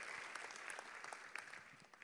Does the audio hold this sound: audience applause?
yes